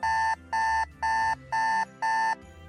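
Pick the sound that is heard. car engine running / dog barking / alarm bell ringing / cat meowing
alarm bell ringing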